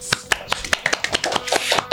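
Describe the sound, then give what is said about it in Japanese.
Quick, steady hand clapping, roughly ten sharp claps in two seconds, like a brief round of applause from one or two people. “ちょっと何の拍手なのかっていう話なんですけども、まあ、その中で採用するのは25名ぐらいになるので、ものすごい競争率ですよ。”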